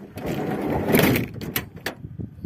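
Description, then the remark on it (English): A van's heavy sliding door rumbles along its track and thuds shut, followed by a few lighter clunks and rattles as it settles. “This is the sound of the van closing.”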